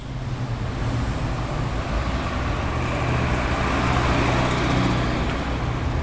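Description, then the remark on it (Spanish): Steady, loud roar of busy traffic on Avenida Corrientes in Villa Crespo, recorded while walking beside the traffic at average levels of 73 to 75 decibels, with engines rumbling and vehicles passing in a continuous wash of road noise, no pauses or quiet moments. “caminando por la avenida Corrientes, al costado del tránsito. Tenemos niveles medios de 73, 74, 75 decibeles”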